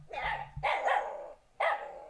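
A puppy in front of a house, facing toward the house, barks three times in quick, high-pitched yaps to call its owner out to play, the first two close together and the third after a brief pause, loud with no one talking.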